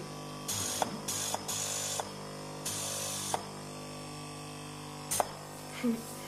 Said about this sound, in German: dann gibt es einen Spezialkleber, der gleich angetrocknet werden muss. Das ist so eine Art Kaltluftkompressor oder auch Föhn. Also das ist das Hauptgeräusch und dann, also das, das ist dieser Föhn.